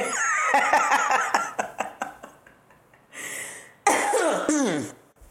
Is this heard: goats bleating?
no